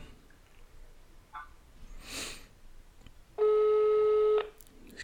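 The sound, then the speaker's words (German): A single steady electronic ringback tone on an outgoing phone call, lasting about a second, loud over a faint hiss, preceded by a brief breathy rustle. No one speaks. “Klingelt.”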